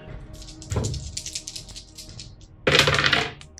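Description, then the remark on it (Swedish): Dice, including an extra die granted for using a tool, clatter and tumble across a hard surface during a game, in two bursts: a short rattle early on and a louder, denser clatter near the end, with no one speaking. “Du får plus en extra tärning.”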